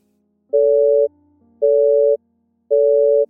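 A telephone busy tone heard on a police station's hotline call in 2006: three steady, loud beeps at a mid pitch, each about half a second long, separated by equal gaps of silence over a faint low hum.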